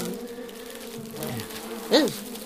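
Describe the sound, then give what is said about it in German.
A steady, droning hum of bees buzzing inside a beehive basket, continuous, with one brief louder buzz rising near the end as a bee crawls at the hive's opening. “Sieh doch, sieh doch, an der Öffnung im Bienenkorb krabbelt eine Biene.”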